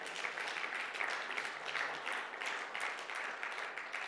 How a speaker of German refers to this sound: Ihr dürft klatschen, gerne, ja.